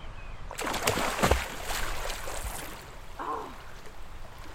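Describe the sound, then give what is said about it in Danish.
A naked person plunges into water with a burst of loud splashing and sloshing over a couple of seconds, then the water settles and a brief vocal exclamation follows. “Nej, der findes ikke noget mere befriende end at være nøgen i vandet.”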